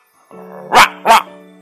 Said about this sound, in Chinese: 接着，莫奇在一个院子里看见了一只被上了锁链的大狗，他一看见莫奇就狂吠起来，像所有那些不被人爱的狗一样。哇哇哇！大狗冲着莫奇张嘴大叫。